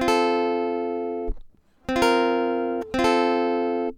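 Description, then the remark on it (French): A sustained instrumental chord rings out, falls briefly silent, then two chords are struck in quick succession, the progression resolving from a C chord to F major and holding loud with no voices. “Et en fait, c'est exactement ce qui va se passer, puisque l'accord suivant, c'est un Fa, et dans le Fa, on a exactement ces trois notes.”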